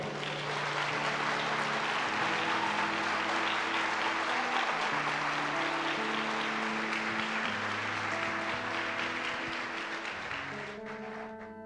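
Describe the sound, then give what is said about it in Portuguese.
A crowd applauds the Lord loudly and steadily for several seconds, dense clapping over sustained musical tones, fading slightly near the end as the music continues. “Você crê nisso? Aplauda o Senhor.”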